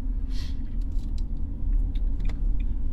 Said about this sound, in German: Der Blinker, der klackert ganz normal. Ja. Wobei das auch ein Geräusch ist, was in der Zwischenzeit generiert wird, weil diese Blink-Release von früher, die gibt es so gar nicht mehr.